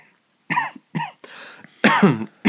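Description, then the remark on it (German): Several loud coughs in quick succession, with a rough throat-clearing rasp between them and a final harsh cough; no speech. “Jetzt muss ich husten, was ist jetzt los?”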